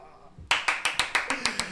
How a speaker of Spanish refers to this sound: Ahora, Aplausos.